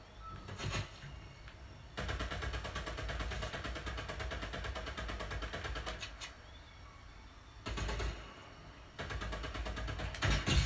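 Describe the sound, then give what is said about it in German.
Rapid bursts of video game gunfire from a single shooter, sharp crackling shots firing in long sustained volleys with brief pauses between, loud and dense, with no talking over them. “Bisher schießt nur einer.”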